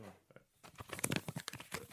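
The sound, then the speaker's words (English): Paper rattles and crinkles in a quick burst of dry, irregular crackles and rustles, starting faintly and growing busier over about two seconds, with no talking. “well, all right, let me get my paper. Wait, I gotta, I gotta rattle something.”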